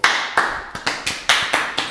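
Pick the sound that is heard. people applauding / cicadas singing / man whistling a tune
people applauding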